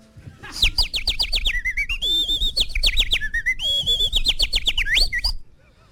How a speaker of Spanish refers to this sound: es el gorrión común. ¿Cómo me puedes repetir? El Passer domesticus. Passer domesticus. Un ave paseriforme de la familia Passeridae